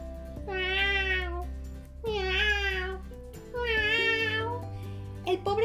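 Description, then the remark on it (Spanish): A cat meows three times in a row, each meow long and drawn out with short pauses between, clear over a low, steady background hum. “Vale, pero ten cuidado con el gato pelado, que maulla tres veces por cada bocado.”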